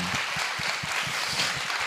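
Steady applause from a small group, a dense rattle of many hands clapping at a fairly even level for a couple of seconds, with no voices over it.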